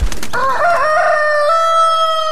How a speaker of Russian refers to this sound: Слышите? А вот и наш петушок прилетел Да-да, тот самый знаменитый гальский петух его можно встретить повсюду во Франции.